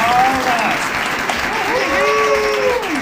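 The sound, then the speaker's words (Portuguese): A steady burst of applause welcoming an interview guest, loud and continuous for about three seconds, with a few cheering whoops and voices rising above the clapping. “Uma salva de”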